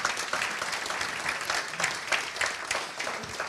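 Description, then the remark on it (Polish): Audience applause at an evening book event, welcoming a music critic, journalist and translator: steady, dense clapping from many hands, sustained at an even level throughout with no voices on top. “Brawa.”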